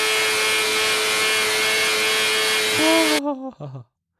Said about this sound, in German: Also aber also wenn euer Auto so klingen sollte, dann solltet ihr damit mal ganz dringend zur Werkstatt gehen.